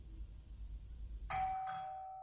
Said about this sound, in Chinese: 我摁下了门铃儿，门就开了。